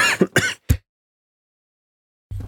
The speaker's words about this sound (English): excuse me, that was my um my uh coughing fit because I haven't had any water.